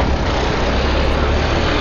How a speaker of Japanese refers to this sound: あのすいませんねちょっとあの屋外から収録してるんでそう車の音が激しい音が入ってくると思いますけどちょっとご了承ください